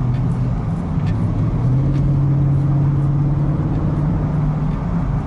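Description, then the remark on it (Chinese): A large-displacement naturally aspirated car engine drones loudly and steadily as it accelerates from a light press of the pedal at about seventy, its deep low hum climbing slightly in pitch partway through, with continuous road and cabin rumble underneath. The car is a flood-damaged car. “其实速度不快，现在七十，但是呢，那种加速的感觉跟这个发动机的声音给给你的整个的这种交互啊，咱们现在叫交互，爽。”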